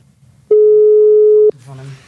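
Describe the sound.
A single loud, steady telephone ringing tone sounds for about a second as a call is placed, a pure unwavering beep, then cuts off as a person starts talking.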